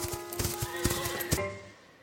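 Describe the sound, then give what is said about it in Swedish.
Horse hooves strike the ground in a quick, steady rhythm, about half a dozen thuds over a low sustained hum, then the sound fades away after the last beat. “Om till exempel en häst inte håller andan när benen slår i marken så kommer hästen att falla.”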